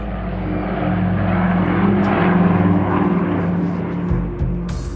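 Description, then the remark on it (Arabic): Piston propeller engines of a Ford-built B-24 bomber, tested at the Ford factory's own airfield, drone steadily and loudly throughout, a deep layered rumble with harmonic hum that swells slightly midway before a brief shift near the end. No one speaks. “ستكون طائرة بي 24 قريباً أكثر الطائرات العسكرية الأمريكية إنتاجاً على الإطلاق كل قاذفة قنابل يتم اختبارها في مطار خاص بمصنع فورد الذي تحول إلى أكثر المطارات ازدحاماً في العالم”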